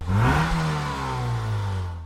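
A Porsche sports car engine revs up sharply as it parks under a no-parking sign, then settles into a steady, throaty idle. The engine is loud, with no voices.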